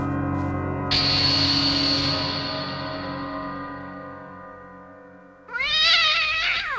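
A cat meows twice: a long, drawn-out wail that slowly fades, then a second rising-and-falling meow near the end. Both are loud, with no talking.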